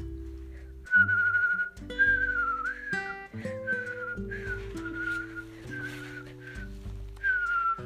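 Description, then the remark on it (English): A person whistles a series of bright, warbling, bird-like phrases in short repeated bursts, imitating a parakeet's call, over steady background music. “Then I whistled my very best pinkerific bird call.”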